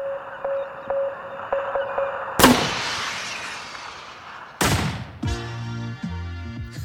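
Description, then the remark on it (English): A steady run of short electronic beeps in a Morse-like pattern, then a sudden loud splash that hisses away, followed by another burst and a few musical tones. “And the Morse code intro is immediately followed by what sounds to me like something being launched into the water, maybe like a big splash.”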